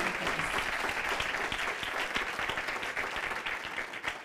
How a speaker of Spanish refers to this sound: Ahora sí, déle ese fuerte aplauso.